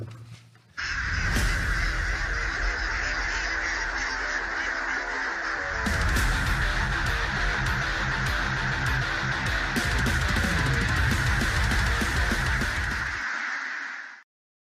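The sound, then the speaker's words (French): A loud, dense quiz jingle runs for about fourteen seconds, full of harsh cawing and quacking bird calls over busy music, with a shift partway through before it cuts off. “Jingle”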